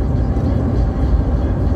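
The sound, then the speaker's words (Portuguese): A small car with a 1.0 engine drones steadily while driving behind a truck as the driver tries to gain speed to pass it, heard from inside the cabin as a continuous low rumble mixed with road noise, with no voices over it. “O cara ter carro 1.0. É econômico, é baratinho, ele é pequenininho, ele cabe em tudo que é lugar.”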